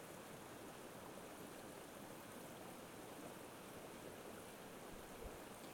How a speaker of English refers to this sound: So if we're up here studying climate crisis, that's one of the things we watch like a hawk the rhythm of that water. And if you get good at it, you can hear it in its sound.